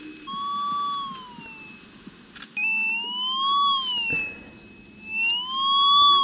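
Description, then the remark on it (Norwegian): A large metal detector, held between two women in protective gear walking slowly across a field, sounds its alarm: a loud electronic tone that slowly rises and falls in pitch, breaking off briefly before resuming over a low background rumble. “Når alarmen uler, setter den ene kvinnen forsiktig ned et lite rødt flagg i jorda.”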